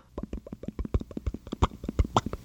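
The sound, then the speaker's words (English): A person smacks their lips rapidly and repeatedly, imitating a monkey's lip smack, as is done toward monkeys to get them to reply with a lip smack: a steady train of wet, soft clicking pops with no speech. “But I wondered, outside of when I'm eating, is lip smacking something we humans have occasion to do anymore?”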